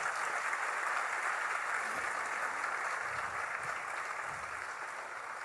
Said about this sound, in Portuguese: Aleluia. Aplauda mesmo a Jesus.